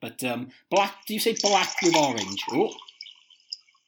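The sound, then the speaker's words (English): A soft drink is poured, a steady fizzy hiss that runs beneath someone talking and then continues on its own for a moment as the voice stops. “I hope that noise was you pouring the drink, by the way”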